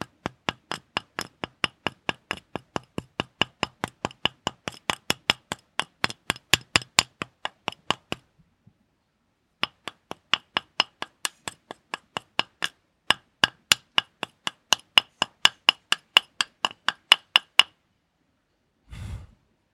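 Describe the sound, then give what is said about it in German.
Steady metallic hammer strikes on rock to dig out garnet, roughly two or three sharp clinks per second, broken by a short pause before resuming, then ending with a single duller thud. No one speaks. “Man kann nämlich selbst den Granat schürfen.”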